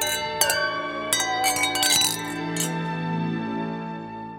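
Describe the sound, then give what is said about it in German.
Several wine glasses clink together in a toast, bright taps scattered over the first few seconds, each leaving a ringing tone that lingers and fades. No one speaks. “Das dürfte reichen, um auf das Seelenheil von Urban und Plektraut Gundacker anzustoßen.”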